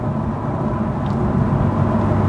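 A steady low rumble of a car driving between two meadows on a country road, constant and unbroken, road and engine noise heard from inside the moving car, with no one speaking.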